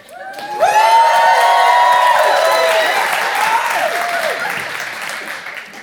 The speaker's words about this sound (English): When my throat gets dry, I'm gonna say I need a drink of water. As I'm drinking water, that is your time to get loud and give God the best praise break you have.